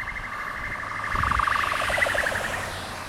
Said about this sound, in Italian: Questa è l'ambulanza.